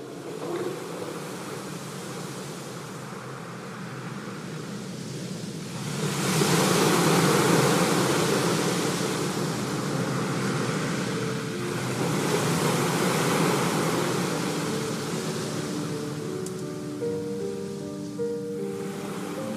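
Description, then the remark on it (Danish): Sea waves surge and crash against cliffs in broad, roaring swells, building louder twice before easing back, with a steady wash of surf in between; a faint tonal hum rises near the end. “Klipperne skrånede ned mod havet, som sendte skumsprøjt langt ind over land.”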